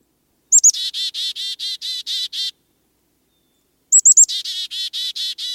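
Two clear bursts of a chickadee's call, each opening with a couple of sharp high notes and then a rapid run of about eight buzzy 'dee' notes, separated by a short silence.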